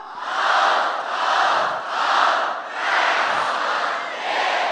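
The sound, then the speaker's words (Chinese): A large audience shouts a rhythmic cheer in unison in response to a greeting, calling out "Hao, hao, hao, tai hao le, ye!" ("Good, good, good, great, yeah!") in Chinese, several loud surging bursts of massed voices rising and falling in a steady chant-like pattern. “当我向大家问好的时候，我希望你大声的说：“好，好，好，太好了，耶！”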